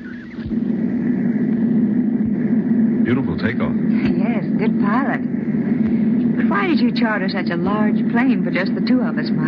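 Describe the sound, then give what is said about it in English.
A steady, loud airplane engine drone hums continuously through the whole scene as the plane is in flight, with people talking over the constant low roar. “Besides, this was the only plane available. You can unloosen your safety belt now.”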